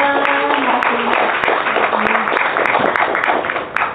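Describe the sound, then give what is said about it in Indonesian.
A crowd applauds steadily and densely for several seconds, with scattered sharper claps and a voice briefly audible near the start. “terima kasih tepuk tangan tepuk tangan dulu untuk kedua”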